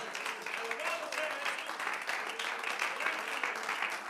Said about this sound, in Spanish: Ríndele ese aplauso a Él en esta hora.